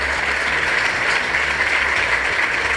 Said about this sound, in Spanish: Por favor, un aplauso para esa audiencia. Para vosotras.